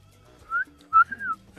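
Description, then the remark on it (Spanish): A person whistles a two-part jeering catcall, a short rising note followed by a longer swoop that climbs and falls. It's fairly loud, with no talking. “Solo te van a chiflar.”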